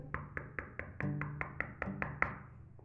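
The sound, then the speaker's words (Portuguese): A rapid, steady series of about a dozen fairly crisp knocks on a wooden door, with a soft low tonal hum underneath and no talking. “Ele bateu na porta”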